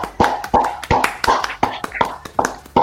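Scattered applause from a small audience, given for the audience itself: sharp, irregular hand claps, roughly a dozen sharp hits over a few seconds, fairly loud with no voices over them.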